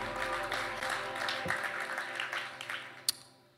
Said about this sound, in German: Ja, ihr Lieben, vielen Dank für euren Dienst. Vielen, vielen Dank. Ein Applaus für unser großartiges Lobpreisteam.